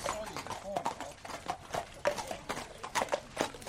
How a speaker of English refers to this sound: We're at Arthur Moore's stables. It's a snowy morning in February. Horses are coming in from the fields, the warm breath from their nostrils visible in the cold air.